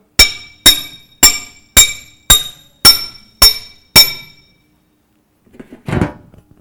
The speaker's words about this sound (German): Also, und der, der Schmied, beim ursprünglichen Schmieden, da hat man ein Stück Metall gehabt, hat das erwärmt und dann durch viele Hammerschläge hat man das in die gewünschte Form gebracht.